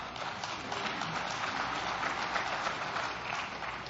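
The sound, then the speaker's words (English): A church audience claps after a mention of Navy SEALs killing three pirates in the Indian Ocean, a dense, steady burst of applause that holds an even loudness for a few seconds, with no voices over it. “Yes, you can clap.”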